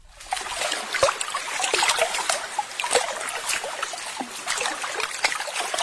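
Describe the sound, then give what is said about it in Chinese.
Water flows and trickles steadily, a bright, splashy babble with small irregular gurgles and drips layered over a constant rushing hiss. No one speaks. “我喜欢听水流动的声音。”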